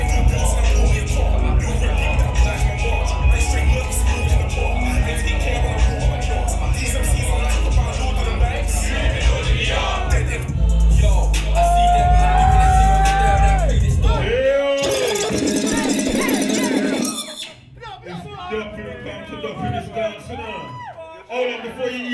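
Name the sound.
crowd cheering and applauding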